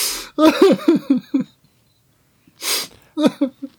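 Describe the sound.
A voice imitates a man sobbing terribly: a sharp, noisy gasping inhale followed by a string of broken, shuddering voiced sobs, a pause, then another gasp and more choked sobs, loud.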